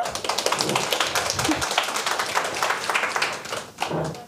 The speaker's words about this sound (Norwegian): Klapper vi for Henriette?